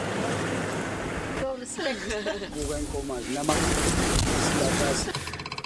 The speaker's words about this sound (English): Instead of getting this beautiful sound of uh, Game Reserve, we're getting the sound of tourists.